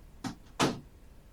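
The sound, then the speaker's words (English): A door is closed by someone on the way out: a short knock or latch rattle, then a firmer, louder thump a moment later, followed by quiet room tone. No one speaks. “Close the door on the way out, please, sir.”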